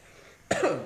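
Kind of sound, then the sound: human body sound, coughing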